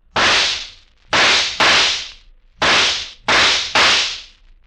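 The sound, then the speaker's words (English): Six loud gunshots from a Colt 44 revolver ring out in two quick groups of three, each sharp crack trailing off in a short echoing decay. No voices are heard. “Six shots from a Colt 44.”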